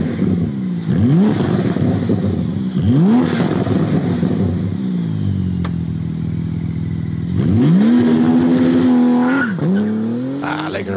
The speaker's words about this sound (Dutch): piepende bandjes. En dat gaat inderdaad hard, he, van 0 tot 100 in 2,9 seconden.